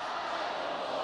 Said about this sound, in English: Today it's just in a mall and you can hear them shouting right now, stand with Hong Kong, fight for freedom.